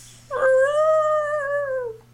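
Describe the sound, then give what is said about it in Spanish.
A person's voice imitates Jumbo the elephant's pained scream as a train drags him along the tracks: a single sustained, wavering howl, loud, starting abruptly and slowly fading out after about a second and a half. “Eso suena como un lobo.”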